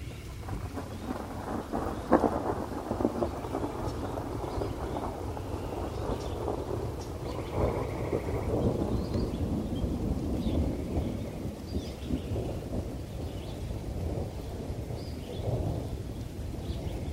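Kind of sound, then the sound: nature, rain with thunder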